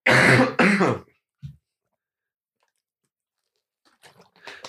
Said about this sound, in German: ich merke schon, da kommt der nächste Hustenanfall